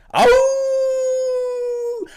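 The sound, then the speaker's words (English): A man imitates a wolf call: a single long, loud howl, rising sharply at the start and then holding a steady, strong pitch for nearly two seconds before cutting off. “hey, this dude doing wolf calls, man, and and I love it, man.”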